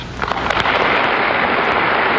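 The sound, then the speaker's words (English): Loud, sustained applause from a large audience during an address to Congress, following a line about putting an end to the teaching and preaching of hate: a few sharp individual claps at the start quickly merge into a dense, steady roar of clapping that continues without any voices. “And this, that line gets just, you know, a huge applause.”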